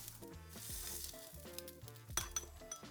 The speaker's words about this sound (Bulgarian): Нарязвам на тънки филийки месо, което е солено, пушено, свинско. И го запичам леко от двете страни на уребрен тиган.